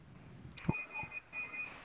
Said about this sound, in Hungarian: Milyen ajtót? Hát csörög a Csörög valahol. A kapucsengő. Nálam csörög? Nem, nem nálam csörög.